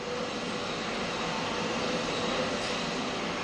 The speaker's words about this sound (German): Was genau hören wir da gerade im Hintergrund? Das ist der Klang einer, ich sag mal, typischen Produktionsumgebung in einer Fabrikhalle. Das heißt, ich höre sowohl Mitarbeiter, die rumlaufen, dort Maschinen bedienen, als auch die Maschinen selber,